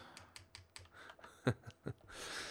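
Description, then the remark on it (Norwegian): A pen taps repeatedly against a webcam: a run of light, evenly spaced clicks followed by three louder, sharper knocks. No one speaks. “Jeg slo på, jeg slo på webcamen med penn.”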